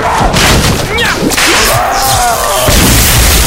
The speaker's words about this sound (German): Ich versuche es mit der Peitsche!